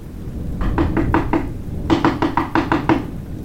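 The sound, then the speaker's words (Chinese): Two quick, urgent bursts of knocking on a castle door during heavy rain, about five sharp raps and then a louder run of six or seven, with a low rumbling background and no voices. “突然，一阵急促的敲门声传进了城堡。”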